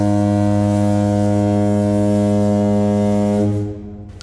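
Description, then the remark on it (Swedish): A single loud, deep horn blast, blown as a spoiler warning, holds steady for several seconds, rich and buzzing, then cuts off and fades quickly near the end. “Borde vi blåsa ett spoilerhål först? Ja, det borde vi göra förstås.”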